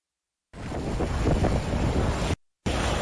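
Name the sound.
howling winter storm wind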